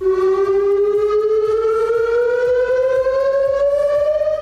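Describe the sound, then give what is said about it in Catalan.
A civil defense warning siren for chemical risk wails steadily in El Prat de Llobregat in the morning, during the first chemical-risk drill since the pandemic, a Civil Protection test; its tone slowly rises over several seconds, loud and continuous with strong harmonics and no one speaking over it. “Aquesta és la sirena que ha sonat aquest matí al Prat en el primer simulacre per risc químic des de la pandèmia.”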